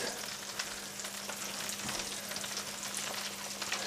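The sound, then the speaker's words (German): Butter sizzles steadily in a frying pan holding the pan residues from fried meat substitute, a dense continuous crackle with tiny pops scattered throughout and a faint low hum underneath, with no one speaking. “Da tue ich jetzt Butter rein.”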